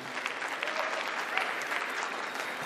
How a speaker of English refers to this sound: You can applaud for that, even though we're in the middle of the sermon. I don't mind that.